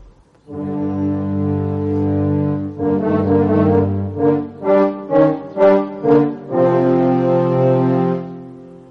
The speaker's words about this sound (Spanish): tema del lobo es interpretado por los cornos.